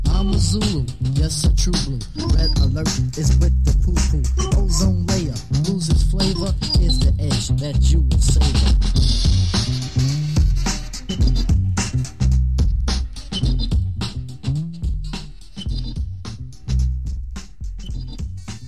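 A DJ's turntable scratching cuts rapidly back and forth over a loud, steady hip-hop break beat, with choppy stuttering bursts and pitch-sliding squeals running the whole way through.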